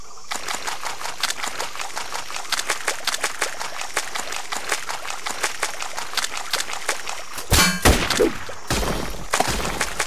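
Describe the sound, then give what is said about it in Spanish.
War video game combat: a steady stream of sharp, rapid gunfire-like cracks and clicks, broken by a loud booming blast near the end. No one speaks. “No voy a hablar, solo escuchen el juego, ven que está bueno y así es una demostración y guerra a full.”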